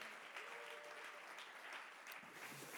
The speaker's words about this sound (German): Und den Fünfjährigen geben wir auch nochmal einen Applaus.